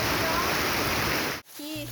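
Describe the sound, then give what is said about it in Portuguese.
Loud, steady, continuous roar of floodwater rushing through a flooded street in Amapá, Brazil, filmed on a mobile phone, then an abrupt cut into a brief moment of someone starting to speak. “Vídeos feitos com o celular mostram a força da água.”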